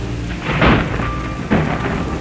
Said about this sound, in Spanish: La lluvia, los truenos y los relámpagos siguen cayendo fuera de la guarida de la sociedad fantástica de niños curiosos.